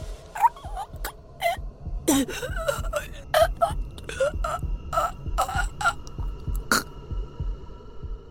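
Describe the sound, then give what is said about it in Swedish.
Soft hiccuping sounds catch in a woman's throat, a string of short, irregular clucks and gulps that keep coming at an uneven rhythm. They stay quiet, with no talking. “Nu när hon visste att hon hade blivit upptäckt kunde jag höra de tysta ljuden hon gjorde. Ett slags hickande ljud i halsen.”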